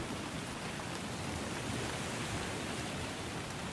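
Steady, even rain hisses without pause late at night at home, a soft continuous wash of falling water with no distinct drops or voices standing out.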